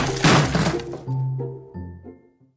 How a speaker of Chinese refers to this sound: 农夫看到熊中了计，就高高的举起斧子，对着熊露出来的屁股用力劈下去。